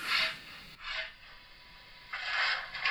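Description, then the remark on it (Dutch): Coal being shovelled, a model locomotive sound effect on a model railway: a series of short, gritty scraping bursts, fairly quiet, repeating with brief gaps and no voices. “Er moet even kolen geschept worden.”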